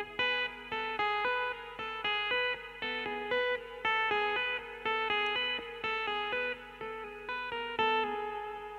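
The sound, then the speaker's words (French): Electric guitar notes sounded by hammer-ons from nowhere with the index finger, played alone in a steady, quick run of repeated legato notes with a bright, sustained, slightly effected tone, fairly loud. “Et même avec l'index, de, faire un hammer, un hammer from nowhere avec l'index comme ça.”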